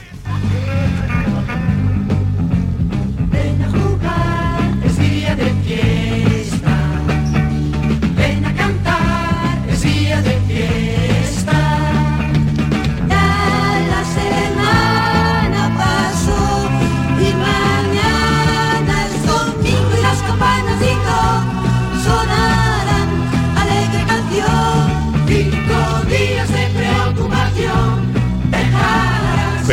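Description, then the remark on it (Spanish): The theme song of the cartoon series Las aventuras de Saturnino, about a duck named Saturnino, plays as continuous, full-band music with a steady bass and bright, busy melodic lines, loud and even throughout, with no talking over it. “Eso es eran las historias de un pato con mucha personalidad que podemos escuchar ahora con la sintonía de hoy también es fiesta.”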